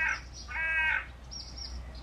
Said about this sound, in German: Ich kann die leider nicht abschalten. Will ich auch gar nicht. Aber vielleicht könnte ich das ja sogar als ASMR-Folge hier verkaufen. Vielleicht ist es ja die ultimative ASMR-Folge. Die Vögel sind dabei.